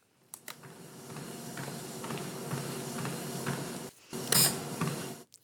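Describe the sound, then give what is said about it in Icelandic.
A treadmill runs with a steady mechanical whir and low motor hum, marked by faint, regular thumps; the sound briefly cuts out near the end, then returns with a short hissing burst. “Þetta er hlaupabrætti færibann sem færir fætur”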